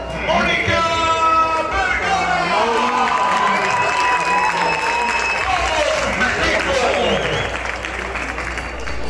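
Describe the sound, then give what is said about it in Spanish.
A stadium crowd at Estadio Tepa Gómez in Tepatitlán de Morelos, Jalisco, applauds and cheers the team presentation and the head coach for about nine seconds, a dense wash of clapping with shouts and whistles rising above it, holding loud throughout before easing slightly at the end. “Presentación de primera y aplausos para la seleccionadora.”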